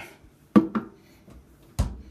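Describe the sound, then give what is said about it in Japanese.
A refrigerator door being opened in Abashiri, Hokkaido, Japan: a sharp clunk followed quickly by a softer knock, then a heavier thud a moment later, with no talking. “ちょっとねせっかくなので目覚ましがてだえー、冷蔵庫開けて”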